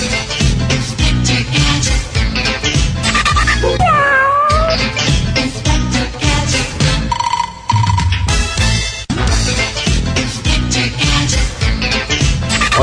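A cat's meow, a brief rising-and-falling cry, rings out over loud, busy music that plays throughout, with a few bell-like electronic tones scattered in.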